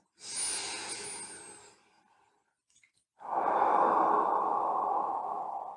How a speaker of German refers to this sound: Das heißt, du atmest ganz bewusst ein und aus